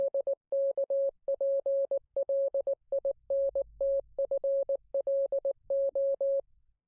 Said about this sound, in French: Et en fait, il s'agirait du morse qu'il y avait pendant le live, voilà, pendant le space. Et, et, les gens ont traduit hein, ce morse-là, hein.